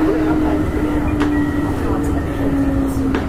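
A loud, steady rumble of a Keihan Railway 6000 series express train running between Hirakatashi and Gion-Shijo, dense low-frequency roar with a sustained mid-pitched hum and occasional faint squeals, continuous throughout with no talking.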